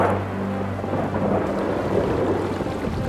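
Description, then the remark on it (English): Thunder rumbles heavily and continuously beneath a steady hiss of pouring rain, loud, with no voices present throughout; a lightning storm over a city. “Dear God, the lightning! As lightning flashed, street lamps flickered off and windows went dim all across the city.”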